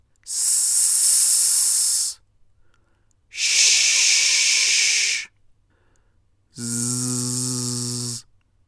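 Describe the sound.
A voice demonstrates sibilant consonant sounds, forcing a lot of air out of the mouth in three long hisses in a row, each about two seconds, with pauses between. The last hiss is voiced and buzzy, like a drawn-out 'z' sound. All three are loud.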